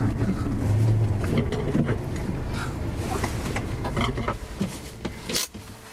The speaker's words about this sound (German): Die Wolken hängen tief über der weiten winterlichen Landschaft der arktischen Tundra. In der Ferne ist der Kebnekaise zu erahnen, Schwedens höchster Gipfel. Der Wind bläst.